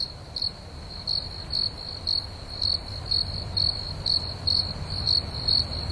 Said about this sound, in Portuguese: Por exemplo, acho que todo mundo já ouviu um grilo fazendo cri-cri de noite, né?